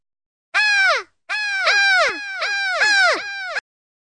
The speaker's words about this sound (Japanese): あれなんかめっちゃカラス多くないどうやらカラスがボールを一個ずつ加えて持ってってしまったそうなんですね。